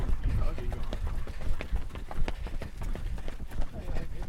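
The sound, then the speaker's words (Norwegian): Heavy breathing from someone running, with a steady rhythm of footfalls pounding underneath throughout. “Jeg hører litt av pusten din.”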